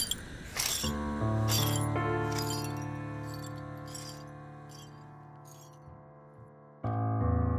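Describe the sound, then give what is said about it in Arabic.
A loud crash of a dish or glass breaking, followed by a long metallic ringing and scattered clinks as pieces settle, then another sharp impact near the end. No voices. “يلا يلا انكسر الشر انكسر الشر”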